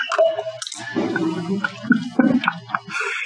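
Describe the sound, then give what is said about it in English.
Beer being poured into cups, a wet, gurgling splash with fizzy hiss and a few uneven glugs over about three seconds, with no one talking. “Oh, there's too much silence while we pour beer here, and we're all laughing at each other.”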